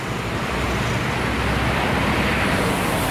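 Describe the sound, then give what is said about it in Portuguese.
Steady, loud roar of heavy street traffic with a broad engine rumble as a bus passes on the busy Padre Eustáquio street, in front of the INSS building; no voices are heard. “pertão do ônibus aqui. A Padre Eustáquio é realmente é, tão movimentada quanto a, quanto a Pedro II.”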